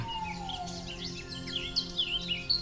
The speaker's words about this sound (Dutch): Links is een zwartkop. Heb je het gehoord? Dus die, die, die, die begint zo eigenlijk als een snelle merel en dan gaat die zang zo helemaal open.